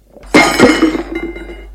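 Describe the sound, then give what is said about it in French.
A porcelain coffee pot smashes with a sharp crash, a second heavy clatter right after, then a rattling, tinkling spill of shards fading out over about a second. No voices. “Un jour, Berthe a cassé une cafetière en porcelaine.”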